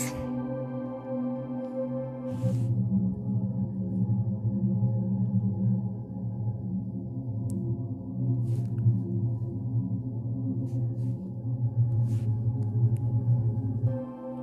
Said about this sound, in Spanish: Ese es el sonido de Venus.